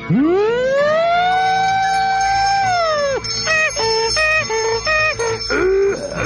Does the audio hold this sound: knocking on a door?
no